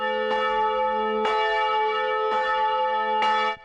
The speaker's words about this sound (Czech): Dnešní pětu završilo 14 minut úderů zvonů.